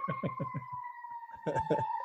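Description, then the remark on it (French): A steady siren wail holds a high tone and drifts slowly downward in pitch, with short bursts of voices talking over it at the start and end. “Par rapport, je connais le résultat d'une purge, personnellement, et c'est effectivement ce que font ces, sirènes comme effet.”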